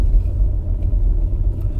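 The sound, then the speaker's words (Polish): A steady, low engine rumble of a freshly washed car driving in a small traffic jam in the town of Żnin, loud, with a continuous road drone and no talking. “Zapnij pas, Hubert. Jedziemy.”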